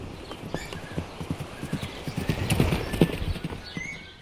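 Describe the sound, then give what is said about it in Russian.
Steady clip-clop of a horse's hooves on a hard surface as a rider leaves on horseback, a rapid rhythmic series of sharp knocks that grows slightly louder toward the middle, with no voices present. “Я возьму коня и поеду за помощью.”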